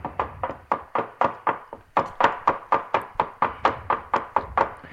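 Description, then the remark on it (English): A metal cookie sheet holding silicone cake pans is bounced rapidly on a kitchen counter to level out the cake, producing a steady run of about twenty dull clattering thunks, roughly four per second, with one brief pause early on and no talking. “I'm going to bounce this on the counter a couple times here the whole cookie sheet.”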